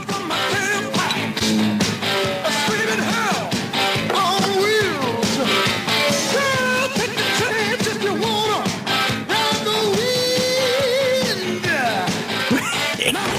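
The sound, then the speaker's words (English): A loud, dense rock song plays from a recording, with driving drums and guitar-heavy melodic lines filling the mix steadily from start to finish, no talking over it. “So I'm going to play the song.”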